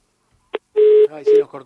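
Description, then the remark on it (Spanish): A phone line cuts off during a live radio phone interview: a sharp click, then two steady electronic beeps, fairly loud, with muffled garbled line noise between and after them. “se cortó.”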